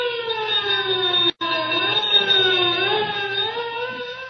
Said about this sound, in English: Sirens wail as squad cars race toward the scene of the explosion.